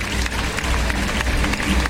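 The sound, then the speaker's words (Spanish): A large bullring crowd in Almería gives a great ovation for the newly ordained matador Jorge Martínez, a dense, steady wash of clapping with no pauses across the short stretch. “Andrés Roca Rey, de momento gran ovación para el toricantano Jorge Martínez.”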